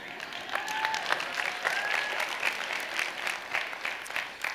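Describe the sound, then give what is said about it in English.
Steady applause from an audience fills the whole stretch, a dense wash of many hands clapping at once, with a few faint whistles or cheers rising above it. “I'm going to have a sip real quick while you guys clap, all right?”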